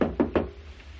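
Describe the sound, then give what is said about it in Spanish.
Three quick, evenly spaced, firm knocks on a door, followed by a short stretch of quiet room tone. “Llaman a la puerta, es Munson.”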